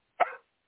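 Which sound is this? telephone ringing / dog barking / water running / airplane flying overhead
dog barking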